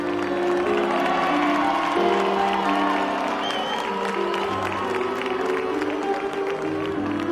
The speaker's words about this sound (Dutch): En bij die laatste woorden beginnen de omstanders te juichen.